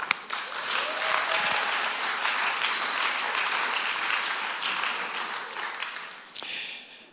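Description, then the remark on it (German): An audience applauds the participants of a game for several seconds, a dense, bright wash of many hands clapping that stays fairly even before tapering off at the end. “Euer Applaus nochmal.”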